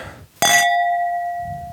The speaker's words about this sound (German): zum Wohl. Zum Wohl. Und denkt dran, beim Anstoßen immer dem Gegenüber in die Augen sehen.